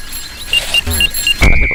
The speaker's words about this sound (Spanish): Hay que ir atentos al pitido. incluso hay un pitido cuando nos va a atropellar la bicicleta, miren.